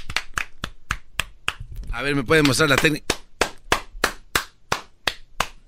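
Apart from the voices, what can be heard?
hand clapping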